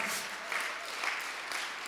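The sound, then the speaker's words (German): A crowd in Nürnberg applauding steadily for online friends in Ansbach and Erlangen, a dense wash of many hands clapping at once with small swells in loudness, sustained through the whole stretch without talking. “Herr, wie wäre es, wenn wir mal hier aus Nürnberg mal unseren ganzen Freunden online in Ansbach und in Erlangen mal einen riesen Applaus geben?”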